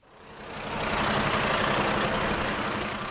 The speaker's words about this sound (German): Es ist später Nachmittag, als sich der Hof vor der Feuerwehr Zierenberg im Kreis Kassel füllt. Ein Feuerwehrauto nach dem anderen kommt mit Blaulicht in Kolonne auf den Hof gefahren, glänzend rote LKWs randvoll mit Equipment zur Menschenrettung.